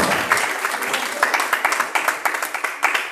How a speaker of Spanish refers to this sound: Mira, pero por medio del Espíritu Santo alguien está esta hora, alguien puede aplaudir al Rey de Reyes y Señor Señores.